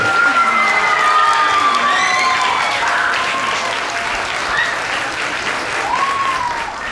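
Steady, loud applause from a crowd with cheers, whoops and high-pitched shouts rising over the clapping throughout, fading slightly toward the end, as the SPAR tournament champion from Modern Brain is announced on stage.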